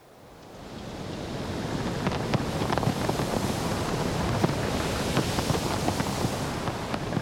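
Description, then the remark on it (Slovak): Steady seaside wind rushes over a constant wash of ocean surf, fading in at the start and then holding loud and full, with small gusty crackles buffeting the microphone throughout. “Čo viedlo morský Vánok k tomu, aby zvýšil hlas na slnečník?”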